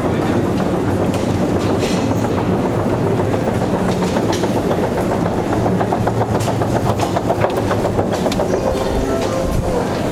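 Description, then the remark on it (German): A Russian metro train rumbles steadily along the rails, its wheels clattering in a fast, continuous rhythm over a deep low roar, loud throughout with no voices. “Mit der Metro zum Roten Platz”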